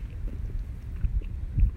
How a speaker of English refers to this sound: and it's quite windy, and the white clouds are racing across the sky.